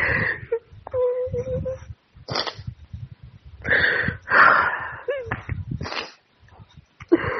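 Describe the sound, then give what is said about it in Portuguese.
A woman sobs and cries in a voice message while watching a Chinese drama, in broken, wavering bursts, with shaky gasping breaths and whimpering moans between them, fairly loud. “as pessoas ouvintes precisam ouvir os áudios que você manda chorando”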